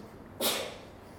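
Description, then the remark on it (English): A single sudden sneeze bursts out, sharp and breathy, then trails off quickly; no one speaks. “Bless you.”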